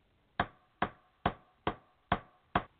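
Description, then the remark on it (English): A hammer taps a nail set to drive a nail into wood six times in a steady, even rhythm, each strike a sharp knock with a short decay and quiet pauses between. “So now use the nail set.”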